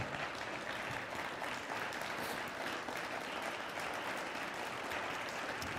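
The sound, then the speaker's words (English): Sustained applause from a church audience, a dense, steady wash of many hands clapping at a constant loud level for several seconds, with no talking over it. “I applaud you as well.”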